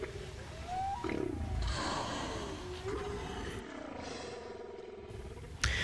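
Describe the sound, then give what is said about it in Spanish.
Whale song: slow, gliding moans and rising whoops drift over a steady rumbling wash of background noise, continuous for several seconds with no voices. “Este es el canto de, las ballenas.”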